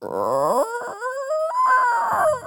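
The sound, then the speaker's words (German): A voice imitates an old drawbridge groaning as it is raised: one drawn-out, moaning creak that bends upward in pitch, fairly loud, lasting a couple of seconds. “Und er nimmt das müde Stöhnen der alten Zugbrücke wahr,”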